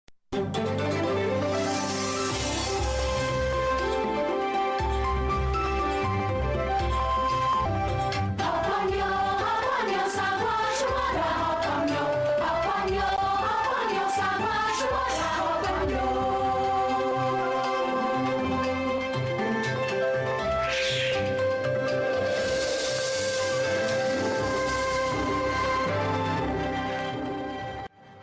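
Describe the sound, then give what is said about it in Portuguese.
The opening theme of a cartoon about a Siamese cat plays loud and steady throughout, with lush, full-bodied music and sung Chinese-language vocals weaving a flowing melody, plus a few odd shimmering effects, with no talking over it. “mais legal desse desenho que essa abertura tinha esses sons estranhos aí que eu achava muito muito legais, muito bonitos e eu descobri só anos depois, muito tempo depois, que se tratava de chinês.”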